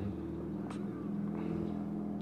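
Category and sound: vehicle, car passing by outside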